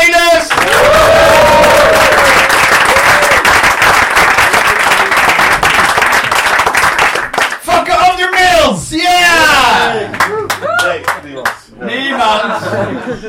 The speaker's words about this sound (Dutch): Geef een geweldig applaus, dames en heren. Fantastisch.